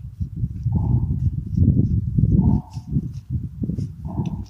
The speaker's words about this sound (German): Jetzt klopft es nur.